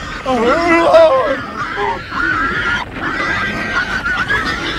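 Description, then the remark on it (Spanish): A herd of pigs squeals and grunts together, shrill rising and falling cries layered over a constant rough chorus, fairly loud, with no pause for the whole stretch. “Y así se fueron a los puercos, y toda la piara se arrojó al mar, precipicio abajo, y perecieron en las aguas.”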